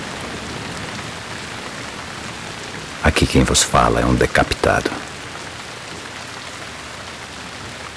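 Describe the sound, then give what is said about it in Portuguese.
Steady rain falls throughout as an even, unbroken hiss, while a voice speaks briefly in the middle over the downpour. “Num dia chuvoso, sobre um tronco, está a cabeça decapitada de Joaquim, o Tiradentes.”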